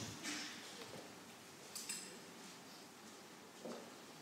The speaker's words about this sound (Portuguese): Isto é bom ouvir assim o, o folhar das páginas, não é? Isto já não estamos habituados a isto.